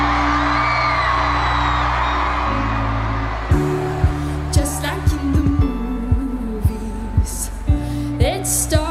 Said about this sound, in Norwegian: I Londons aller største storstue, hvor over 80 000 publikummere feirer sommeren og musikken på sjølveste Wembley.